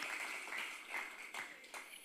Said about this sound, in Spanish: Un aplauso